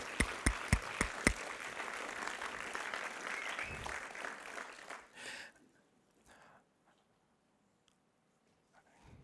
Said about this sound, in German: Und das finde ich mega, mega cool. Euch allen zusammen mal einen Applaus Yeah.